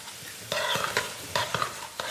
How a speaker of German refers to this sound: wir braten jetzt einfach nur ganz kurz den Kohl so ein bisschen glasig